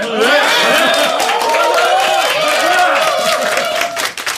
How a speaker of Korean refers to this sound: 젤리, 젤라, 젤로몬 극장판 애니메이션에 참여하게 된 모든 배우님들 진심으로 감사드리고요. 우리 서로에게 파이팅 하자는 의미로 박수 한번 쳐볼까요?